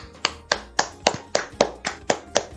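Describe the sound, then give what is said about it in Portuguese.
A steady run of about ten sharp hand claps at an even, fairly quick pace, clear, like a single person applauding, with no voices. “por favor, vamos aplaudir essa enfermeira que humilhou a gorda nos tribunais.”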